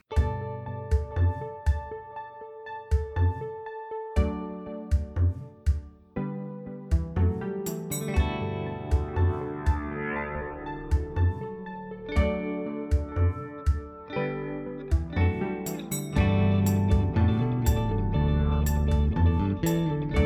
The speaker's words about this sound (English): it's actually kind of a treat knowing that this music will be Kip's music